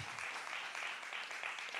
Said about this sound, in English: See, I wanted you to clap because that might be the only time you clap in this sermon. I just wanted to get that out of the way.